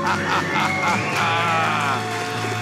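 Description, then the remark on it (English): A loud, sustained celebratory scream of "We're debt free!" after a three-two-one countdown, voices straining high and holding for a couple of seconds without dropping, raw, like excited people shouting in triumph at having paid off $134,000 of debt in three years. “All right, let's do a debt free scream.”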